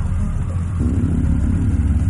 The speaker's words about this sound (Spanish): Una moto se acerca.